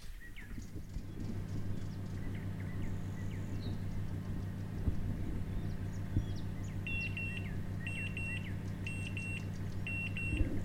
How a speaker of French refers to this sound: c'est le bruit du four. Euh, c'est le bruit de, la sonnerie du four. Euh, bah, quand il a fini de cuire ce qu'il devait cuire, euh, en l'occurrence, là, c'était un gratin.